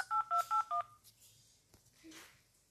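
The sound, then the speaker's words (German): Four quick, evenly spaced telephone keypad tones beep loudly as someone dials to call a friend, each a short dual-pitched blip, followed by a brief stretch of faint rustling and low background noise. “Ich versuch's nochmal, meinen Freund anzurufen.”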